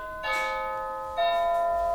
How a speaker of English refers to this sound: It's your doorbell. Oh. We've got a visitor. Well, that was, a, that, was a, that was a pizza delivery guy that interrupted us.